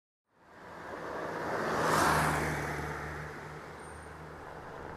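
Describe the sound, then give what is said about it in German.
A small white car drives past at the Kapitan Andrevo border crossing between Turkey and Bulgaria, its engine and tire noise swelling to a peak midway, then easing off over a steady low rumble of idling traffic. No one speaks. “Der Mann im kleinen weißen Auto hat es in 20 Minuten nach Bulgarien geschafft.”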